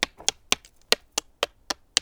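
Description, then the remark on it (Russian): A steady series of about eight sharp hand taps on the stone wall of an ancient hilltop fortress, evenly spaced roughly a quarter second apart, crisp with no voices. “это звук стены э, древней крепости.”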